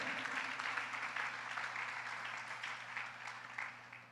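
crowd, audience applauding

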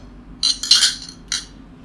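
household object, glasses clinking

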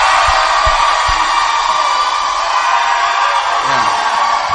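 crowd, audience shouting

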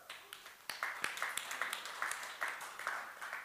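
crowd, audience applause

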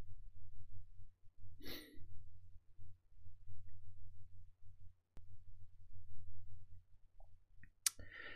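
human body sound, burp

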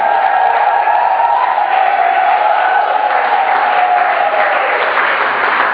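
crowd, cheering and applause

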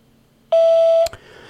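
signal or alarm, voicemail beep tone

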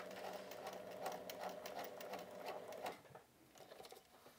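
machine, sewing machine stitching

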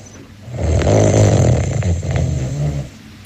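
human body sound, light snoring

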